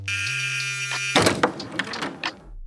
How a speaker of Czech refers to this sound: A otevřela vlkovi dveře, ani se na záběr z kamery pořádně nepodívala.